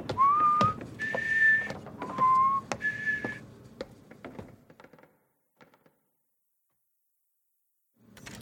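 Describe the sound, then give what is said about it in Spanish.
A person whistles a cheerful tune of a few short rising notes, clear, while climbing the stairs with a series of sharp thumping steps, then trailing off into silence. “Le sonríes y subes las escaleras silbando alegremente.”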